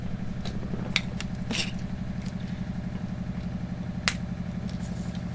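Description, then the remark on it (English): A washing machine shaking through its spin cycle: a steady, low rumbling drone with a fast rhythmic throb, broken by a few sharp knocks and rattles. No one speaks. “Man, I that washer is shaking.”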